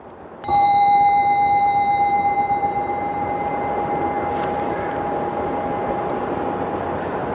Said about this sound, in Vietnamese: ví dụ như mình nghe tiếng chuông à có nhiều người thắc mắc sao người ta đánh chuông mà thầy đánh cái này ta đánh chuông ngửa lên mình đánh chuông úp xuống cái ngửa lên úp xuống nó không quan trọng mà quan trọng là nó có tiếng cái chuông